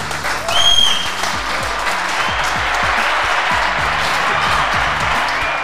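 A live audience breaks into dense, sustained applause for the guests after a conversation, filling the whole stretch at a steady loud level, with a brief whoop or cheer rising above it near the start.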